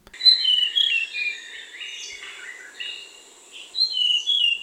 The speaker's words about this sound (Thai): ป่าชายเลนเป็นการเฉพาะยกตัวอย่างเช่น นกแต้วแล้วป่าโกงกลาง นกหัวโตป่าโกงกลาง นกจับแมลงป่าโกงกลางนะครับ